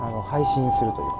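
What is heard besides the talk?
ambulance siren outside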